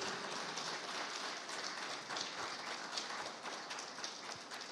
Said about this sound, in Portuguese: Aleluia! Vamos aplaudir a Jesus bem forte, queridos.